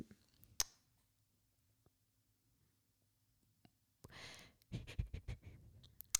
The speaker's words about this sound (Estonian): Äh, see ei olnud nutt, kui see võis nii kõlada. ma mõtlesin, hingeldasin korra. ikkagi paanika.